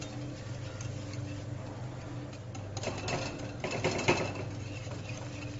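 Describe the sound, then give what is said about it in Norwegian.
Boiled potatoes, with milk and butter added, being mashed with a ladle instead of a masher: a run of soft, rhythmic tapping and scraping knocks over a steady low hum, growing busier and a little louder in the second half. “Det hele stapper du med hjernen stapper. Det har ikke jeg nå, så jeg bruker en øse.”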